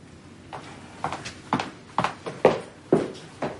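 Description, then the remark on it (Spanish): Steady footsteps of a person walking away down a hallway in an apartment, about eight distinct hard-soled steps at an even pace, echoing slightly, with no voices over them. “Abre la puerta, mira dentro y se aleja por el pasillo.”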